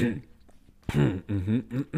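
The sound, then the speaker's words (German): A voice imitates an awkward throat clearing, a string of short voiced grunts and hums in close succession, fairly loud, after a brief stretch of quieter vocal sound. “so, so ein Räuspern.”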